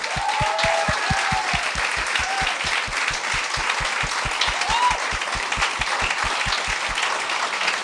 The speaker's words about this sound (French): J'aimerais ça qu'on donne une bonne main d'applaudissement à Catherine Etier et Jean-François Provençal.